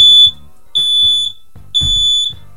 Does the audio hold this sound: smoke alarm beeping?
yes